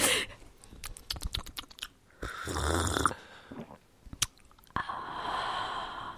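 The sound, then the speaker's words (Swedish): Wet slurping sips of coffee from a cup, two longer noisy pulls separated by small clicks and mouth sounds, fairly quiet and intimate with no talking. “ta en klunk igen.”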